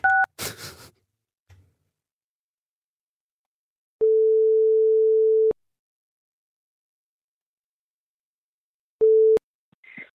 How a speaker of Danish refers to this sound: Så skal jeg lige ringe op her.